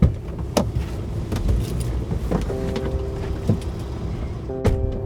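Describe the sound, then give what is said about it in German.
Cars drive past in steady traffic as they are waved through: a constant engine rumble, a few sharp clunks, and a sustained tonal hum rising near the end. No one speaks. “Der Stefan winkt die Auto durch.”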